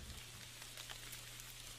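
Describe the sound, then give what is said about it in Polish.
Steady rain patters down onto mud, with scattered soft drips and splashes like drops hitting growing puddles, over a low constant hum. It is fairly quiet and continuous, with no voices. “A teraz leży we własnej krwi, w błocie i w coraz to większych kałużach deszczu.”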